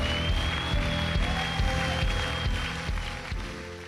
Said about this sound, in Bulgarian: О, хайде, ако ръкопляскаш, ръкопляскай, като че вярваш това, което проповядвам днес.